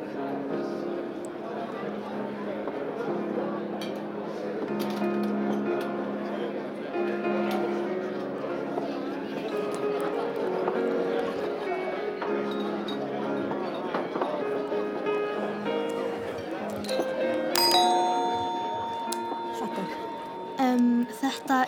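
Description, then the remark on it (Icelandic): A pianist plays a steady, lively melody with sustained chords, a well-known pop song in a new arrangement, with a murmur of background voices. “þar sem að píjánuleikari sittur í hodninu og heldur uppi í svona góðri stemningu hann er búin að fara nokkrun sinnum í gegnum lagalistan sinn og núna er hann að leika sér að því að útsetja þekkt lög á nýjan hátt.”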